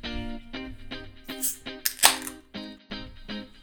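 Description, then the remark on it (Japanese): A can or bottle of State of Excitement, a West Coast IPA-style beer from Stonebreaker Brewing, cracks open with a couple of sharp, hissing bursts, set against an upbeat rhythmic music jingle that plays throughout. “今日のお酒は後で紹介するストーンブレイカーブルーイングの State of Excitement というウェストコースト IPA スタイルのビールです。”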